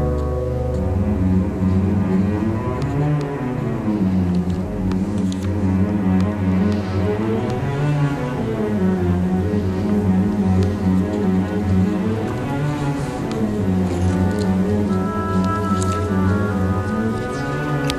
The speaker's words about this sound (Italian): Segue un inquieto pianissimo basato sul serpeggiare di una scala ascendente e discendente e su cui galleggiano isolate le cellule, le, delle cellule ai legni. Ci sono sprazzi di eroismo che però non riescono a ripartire.